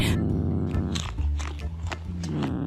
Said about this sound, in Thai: มันก็ได้รีบลุกพลวดขึ้นมา ตะปบปลาในอ่างนั้นใส่ปากอย่างรวดเร็วและในที่สุดปลาน้อยใหญ่นับสิบตัวในอ่างนั้น ก็ถูกเจ้าแมวเหมียวจับกินจนหมด